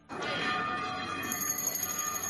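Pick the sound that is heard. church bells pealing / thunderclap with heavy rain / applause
church bells pealing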